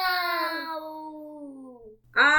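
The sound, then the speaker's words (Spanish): A person's voice imitates a cat with one long, drawn-out meow that slowly falls in pitch and fades, followed by a short pause before a second, louder meow starts abruptly. “El gato blanco maulló a la luna. ¡Miau!”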